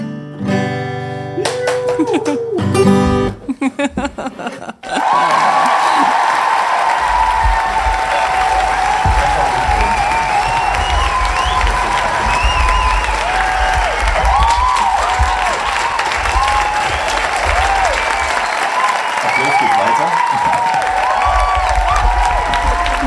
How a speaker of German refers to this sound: Der erste Podcast mit Standing Ovations.